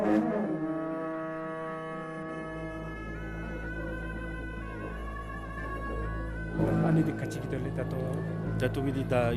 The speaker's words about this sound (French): Le son que l'on entend est celui de la trompette, euh, un instrument de musique utilisé seulement pendant la fête religieuse qui nous avertit de l'arrivée du chef abbé et des chefs religieux.